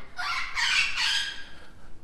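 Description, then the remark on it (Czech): Amazon parrots let out loud, harsh squawking calls in a few overlapping bursts over about a second and a half, then fade into quieter background noise. “A amazoněné, jak slyšíte, sídlí hned vedle.”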